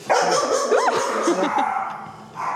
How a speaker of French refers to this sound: va peut-être passer quand même par le refuge des petits chiens. Les petits chiens. Donc, euh, ça risque d'aboyer un petit peu. Oui et non, mais, euh, mais voilà. Donc, on a, on a ici des chiens d'un petit peu toutes les races, hein, comme vous voyez.